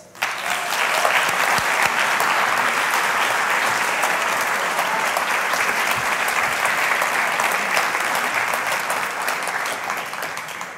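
Sustained applause from a crowd, a dense, steady wash of clapping that stays loud and even for about ten seconds with no voices standing out.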